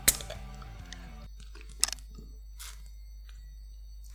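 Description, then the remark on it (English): A beer is opened: a sharp metallic crack followed by a short burst of fizzing hiss, with a few small clicks around it and no one speaking. “that's the sound of the first beer with Boot opening up”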